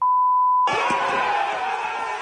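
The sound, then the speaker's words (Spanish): A single steady, high-pitched censor bleep over swear words of a man motivating his players holds for just over half a second, then cuts straight into a loud, noisy wash of crowd-like sound that carries on to the end. “como lo pueden escuchar, le puse algunos pip, pip, pip para que no se eh, escucharan las palabritas un poquito altisonantes, pero motivando a sus jugadores.”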